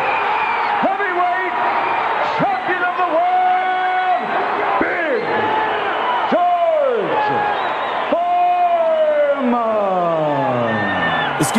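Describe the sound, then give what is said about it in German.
A boxing crowd reacts to the disputed majority-decision loss of Axel Schulz in a world title fight: a loud, dense roar mixing booing and cheering, with long rising and falling shouted tones and whistles cutting through the steady din throughout. “gibt Buhrufe, aber auch Jubel.”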